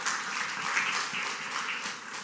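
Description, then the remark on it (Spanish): An audience at a Spanish-language church service breaks into sustained applause for God, the 'King of Glory', after a prayer: a dense, steady wash of many hands clapping at once with no voices over it, holding an even level for a couple of seconds. “Den un aplauso fuerte al Rey de la Gloria.”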